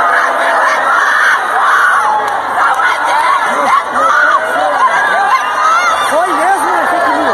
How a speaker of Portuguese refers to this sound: E tem vídeo também dos manifestantes comemorando a prisão do Alexandre de Moraes.